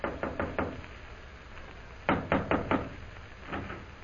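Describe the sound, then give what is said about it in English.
Knocking on the door of room 419 at the Central Hotel in three bursts: a quick set of four raps, a pause, another firm set of four, then fainter taps. No voices. “Immediately after leaving the consul, Jim hurries to the Central Hotel, goes to room 419, and knocks on the door.”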